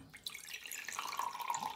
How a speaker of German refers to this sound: willst du noch einen Tee? Ja, warte, ich gieße ein.